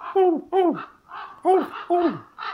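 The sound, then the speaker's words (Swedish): A person imitates a raven's classic croaking call, giving a series of loud, hoarse, falling croaks in two quick pairs, with brief breathy sounds between them. “Och så låter de med det här klassiska korplätet.”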